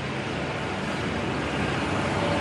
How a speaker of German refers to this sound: Jetzt kommt hier ein Trecker. Ah nein, ein, äh, ja, ein lautes Gefährt auf jeden Fall.